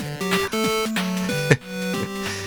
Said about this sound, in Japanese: えー、締めの、えエンディングテーマといいますかですね、えちゃんと用意しておりますよ。どうぞ。はい、どうでしょう。あの、あれですよ。あの、ホタルの光ですね。ホタルの光の、えー